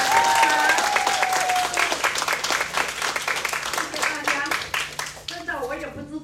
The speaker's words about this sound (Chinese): 最后，我要感谢我有一群非常优秀的相知相挺、不离不弃、共同努力的伙伴。借助大家的掌声来感谢。